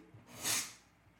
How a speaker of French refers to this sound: Ah, c'est mon chat qui ronflait.